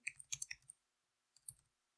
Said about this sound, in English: I just clicked Why are you not typing?